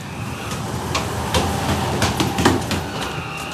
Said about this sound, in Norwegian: Horten Moss-ferja kommer, og reisefølget går om bord.